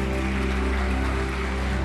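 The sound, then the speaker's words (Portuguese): A crowd applauds the media team at a morning celebration in a steady, dense wash of clapping that holds at an even level throughout, with a faint low hum beneath and no voices. “Vamos dar uma salva de palmas para a mídia.”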